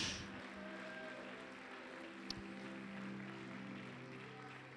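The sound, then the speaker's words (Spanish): An audience claps in thanks to the Lord in a steady, dense wash of applause that lasts the whole stretch, with a faint sustained musical tone beneath it. “¿Le puede dar palmas al Señor en agradecimiento al Señor?”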